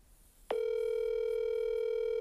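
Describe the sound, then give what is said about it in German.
After a short quiet moment, a steady electronic ringing tone of an outgoing phone call to a singer's manager starts abruptly and holds evenly and loudly, with no one speaking. “als ich sehe, dass dieser seine Telefonnummer einfach öffentlich auf seinem Profil stehen hat, versuche ich ihn auch einfach mal, ihn anzurufen.”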